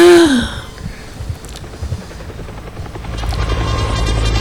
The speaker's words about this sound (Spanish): Con los helicópteros de indios. de caballería por ahí.